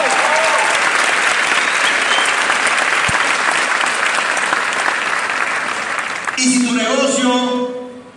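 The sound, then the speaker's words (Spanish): An audience gives a loud, steady burst of applause for the good people present, with dense clapping lasting several seconds, then a voice begins speaking as the clapping fades out. “Un aplauso para los buenos.”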